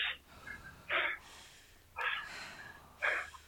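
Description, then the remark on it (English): Heavy, rhythmic panting breaths, about four sharp exhale-inhale bursts at roughly one-second intervals, fairly loud with no talking, from people catching their breath after a rowing piece. “We're all puffing, we're all panting.”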